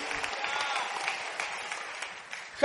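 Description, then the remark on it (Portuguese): A church audience applauding to glorify the name of the Lord, a dense wash of many hands clapping at a moderate, even level, with a brief louder burst right at the end and no voices standing out. “Aplaude e glorifica o nome do Senhor, porque é uma realidade.”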